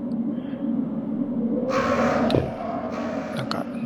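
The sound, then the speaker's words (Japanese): Crows caw in a video game, two harsh, raspy bursts rising over a steady low background drone, moderately loud, with a short sharp click between them, as the player uses a knife on the crows and kills a perched one. “カラス用にはこのナイフが効くんだよね。あ止まってるカラスを殺した。”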